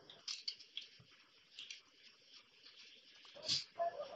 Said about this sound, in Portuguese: Veja, esse baralho mesmo. Só tem 40 tipos. Se você souber jogar e contar direito, você ganha qualquer partida. Mesmo meio orc absorto, eu fico brincando com o baralho aí.